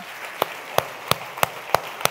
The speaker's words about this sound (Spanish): Si le va a dar el aplauso al Señor.